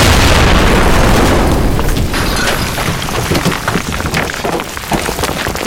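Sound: explosion blast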